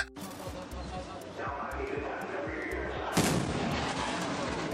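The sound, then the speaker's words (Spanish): A sonic boom from a supersonic aircraft: a steady, rushing roar builds before one sharp, loud boom cracks out late in the sound, leaving a rumbling wash behind it. No one speaks. “Y esto genera un ruido que se le conoce como el sonic boom y se escucha no solo en el aire, sino en el piso también.”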